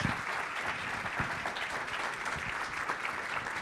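Sustained applause from an audience welcoming Professor Manuel Sobrinho Simões, president of IPATIMUP, to the stage, a dense steady patter of many hands clapping at an even level throughout, with no voices standing out.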